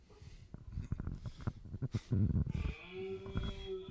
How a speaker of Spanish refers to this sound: Así se oye, así se oye un venado, ¿verdad? Cuando, cuando está eh, bramando, cuando está bramando por, por, las corrientes de las aguas.